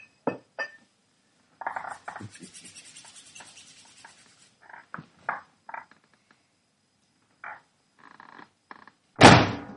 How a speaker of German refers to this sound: Wumps. Das war die Tür.